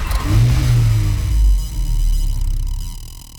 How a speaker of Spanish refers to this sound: El segundo es el escape multicámara Fratsony... el primero para un eléctrico que puede alcanzar hasta 128 decibeles.